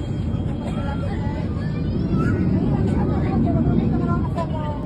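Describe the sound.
Loud, steady engine roar inside a Southwest Airlines Boeing 737 on the Havana–Fort Lauderdale route, forced to return for an emergency landing at José Martí International Airport in Havana, Cuba; a dense low rumble holding for several seconds with faint, muffled voices underneath.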